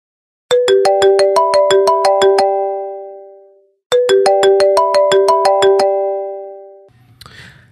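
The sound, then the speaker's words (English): The original iPhone default ringtone, a bright marimba-like melody of quick plucked notes, plays loudly twice in a row, each phrase ringing out and fading before a brief rustle at the end. “So the first iPhone ringtone, if you remember, was this.”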